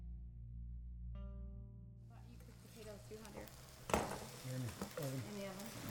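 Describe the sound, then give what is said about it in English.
Home-raised DX Beef sizzles in a cast iron pan as dinner is made, a steady hiss with a low hum underneath, joined partway by scraping and stirring clatter and a sharp clank near the end. “That is DX beef sizzling on a cast iron uh, pan.”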